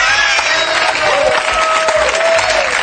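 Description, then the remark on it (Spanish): A crowd applauds in a dense, steady roar of clapping that holds loud for the whole stretch, with a few raised voices and tonal cheers threaded through it. “¿Sabes lo que aplaude la gente?”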